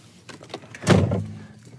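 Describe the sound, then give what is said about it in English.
At quarter to seven in the morning, barely light, a few soft clicks and rustles as someone settles into a car, then a single solid car door thuds shut, leaving a brief low hum in the cabin. “It's quarter to seven in the morning, it's barely light, and I've just got into the car to go off and do the circuit above.”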